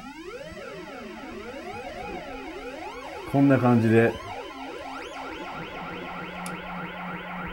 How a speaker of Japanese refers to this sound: これは京都に住んでる下村さんという方が作ってる手作りの機械なんですよね。で、まあ、有名なミュージシャンいろんな方使ってらっしゃるんですけれどもこれサイレンマシンに加えてですねディレイがついてるんです。